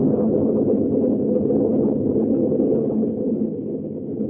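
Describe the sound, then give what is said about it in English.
A deep, steady rumble of thunder rolls on without a break, loud and low, easing off only slightly near the end. No one speaks. “Now we know that thunder is coming.”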